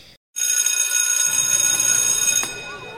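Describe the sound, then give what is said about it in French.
A school recess bell rings loudly and continuously for about two seconds with a bright, metallic, buzzing clang, then cuts off, leaving a faint murmur behind. “J'avais une grosse boule dans la gorge, et la cloche de la récré a sonné.”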